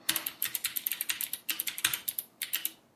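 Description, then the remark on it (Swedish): Rapid clicking of keys on a small computer keyboard with a custom layout, a steady stream of sharp taps with brief pauses, fairly quiet, with no voices. “Men det hör ju till saken att det inte bara är ett litet tangentbord utan det har ju min väldigt eh, gradvis anpassade layout.”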